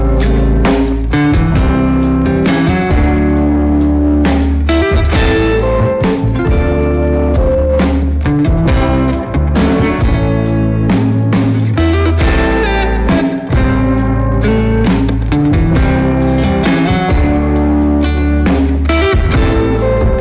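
Guitar-led instrumental music from a guitarist's solo album project plays loud and continuous for about twenty seconds, with a full, dense sound, strong bass and steady rhythmic attacks, and no one talking over it.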